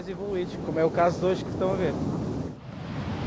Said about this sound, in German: Viele glauben, dass es in Nazaré nur diese riesigen gibt. Aber das stimmt nicht. Wir haben auch die kleinen, die normalen Wellen wie hier am Stadtstrand. Die sind gut für die Anfänger und die, die schon ein bisschen e Übung haben.